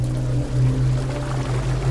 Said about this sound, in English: My dad fired the engine back up and we continued up the channel.